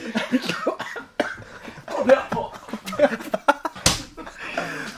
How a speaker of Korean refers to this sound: 괜찮으세요? 어, 뭐, 왜 나한테 기침을 해?